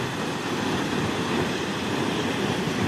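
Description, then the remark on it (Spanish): Water pours and gushes heavily from a burst pipe high up on a building, spurting out and flooding the building, a steady loud roaring rush with no pauses and no voices, filling the whole stretch. “está que cae, cae bastante agua allí.”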